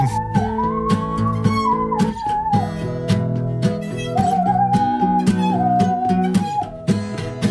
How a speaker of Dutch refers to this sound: Een zingende zaag, die klinkt zo.